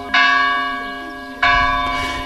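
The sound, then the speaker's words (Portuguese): A church bell, the same one for 80 years, rings out from the church tower, two strong strikes about a second and a half apart, each leaving a long, shimmering metallic hum that slowly fades. No voices. “E eis que por momentos o sino, o mesmo de sempre, o mesmo de há 80 anos, Toca na torre da igreja e toca fundo na memória de Eduardo Lourenço.”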